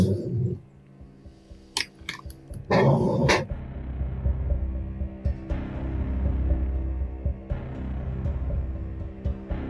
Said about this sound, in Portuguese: Só, só um pouquinho, só um pouquinho que eu vou ver o que que tá dando essa barulheira aí de cachorro.